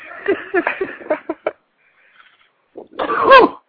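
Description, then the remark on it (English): A fit of harsh, rapid coughing from someone taking a hit: several explosive hacks in a row, then a brief quiet gap before another strained, raspy coughing burst that ends loudest. “I was taking a hit. You almost made me choke”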